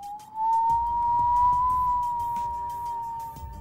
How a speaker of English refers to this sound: As Jaden woke up the next morning, he could hear the wind howling outside.